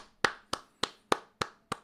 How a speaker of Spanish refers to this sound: Excelente. Se merece su aplauso, compadre.